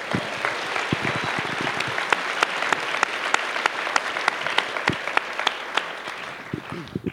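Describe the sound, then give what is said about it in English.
A theater audience at the Mesa Arts Center applauds the venue steadily for about seven seconds, a dense wash of many hands clapping with sharper individual claps poking through before it begins to thin out at the end. “How about a round of applause for the Mesa Arts Center?”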